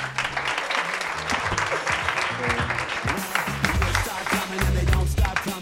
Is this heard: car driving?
no